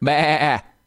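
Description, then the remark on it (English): A single sheep bleats loudly, a wavering, quavering baa lasting just over half a second before cutting off into quiet. No one speaks. “I can hear sheep.”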